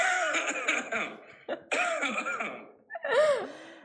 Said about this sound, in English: we did a little cough game before the show we all wore face masks and we have a cough coming at you